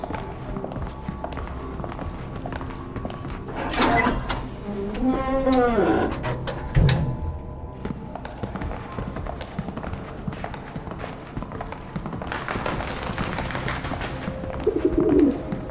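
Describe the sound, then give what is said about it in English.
A black carrier pigeon carrying a tape player coos in low, throaty bursts, with a brief rustling flutter of wings later on, all over a busy background of indistinct noise. “It looks like a black carrier pigeon.”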